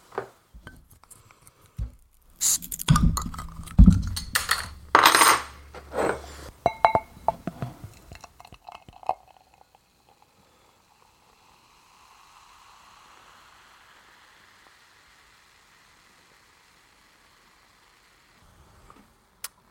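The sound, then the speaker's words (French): A light, golden beer is poured with a burst of splashy, gurgling sounds, then a soft, steady fizzing hiss of bubbles carries on quietly for several seconds. No one speaks. “Je sais pas si vous avez pu l'entendre, mais elle pétille bien.”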